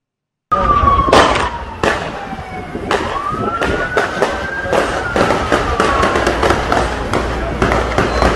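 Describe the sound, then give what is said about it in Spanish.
Rapid, irregular gunshots from a rifle, a long gun, crack again and again, loud sharp bursts piling up over a wailing siren that rises and falls underneath, with faint voices mixed into the din. “es un sonido de rifle y sí, es un arma larga, definitivamente.”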